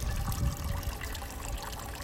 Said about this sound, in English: Can you hear the water in the background? Love the sound of water. So soothing.